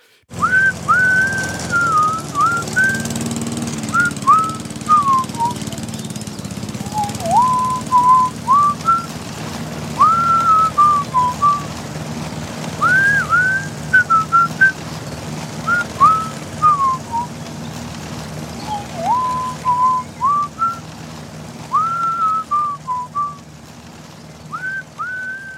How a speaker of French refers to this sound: Moi, j'ai un autre fun fact, tu sais, … siffle pendant cette scène-là.